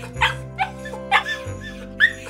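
A puppy named Rufla cries out in pain after biting hard kibble and breaking a molar into pieces, giving four short, high, whimpering yelps spaced irregularly over a low steady hum, fairly loud.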